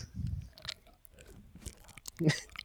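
Close-up chewing with wet, crunchy bites, coming in irregular bursts near the microphone, with a louder crunch toward the end.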